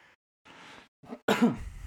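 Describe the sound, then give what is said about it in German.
A few breathy coughs and a throat clear in quick succession from a person with a lingering cough, the last one loudest and rough, with short gaps between bursts and no talking. “Immer noch ein bisschen Husten.”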